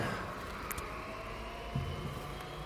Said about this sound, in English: he made this sound piece that's meant to kind of recreate the sounds of a semi truck